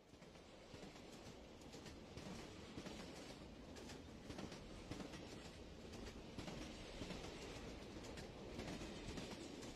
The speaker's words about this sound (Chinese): 火车就要来了，爸爸坐的火车。